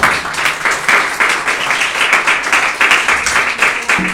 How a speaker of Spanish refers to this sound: De la ofrenda de palmas al Señor, pues.